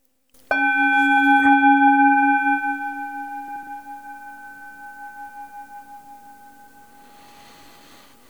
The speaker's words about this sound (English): create the new space with a little gong sound, and we'll take it from there.